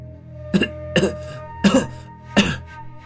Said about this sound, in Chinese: 刘小宁发出剧烈的咳嗽，腾的一下从地上爬了起来。